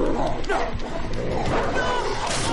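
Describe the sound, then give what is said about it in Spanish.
A dog snarls and growls ferociously as it enters and leaps on a man, a loud, continuous burst of vicious, rasping vocalizing that sounds like an attack in progress. “Entra el perro.”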